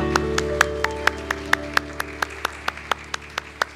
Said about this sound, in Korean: 박수 드립니다.